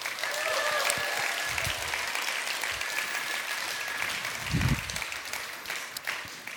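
An audience bursts into sustained applause, a dense, even wash of clapping hands that holds steady for several seconds, with a few whistles or cheers rising faintly above it.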